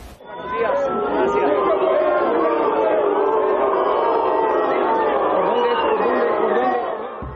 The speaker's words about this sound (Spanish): Abucheos, gritos, consignas, la manifestación crecía a las afueras de la universidad, mientras adentro avanzaba la conferencia.